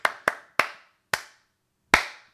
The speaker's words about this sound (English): It evolves into a slow clap. That's just me doing the slow clap.